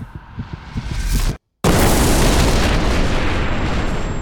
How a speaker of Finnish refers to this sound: Ajatukseni poterossa katkesivat, kun kuulin ja tunsin ensimmäisen räjähdyksen.